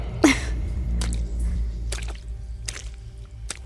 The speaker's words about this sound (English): Sorry, Mum. I just dropped my phone in the puddle.